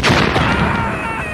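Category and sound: sound effect, fireworks exploding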